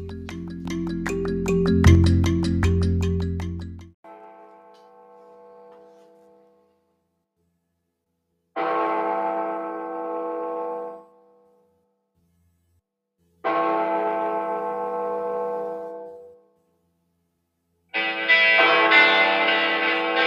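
A heavy church-style bell tolls slowly, four loud strikes about five seconds apart, each ringing out and fading before the next, opening a hard rock song after a brief burst of other music at the start.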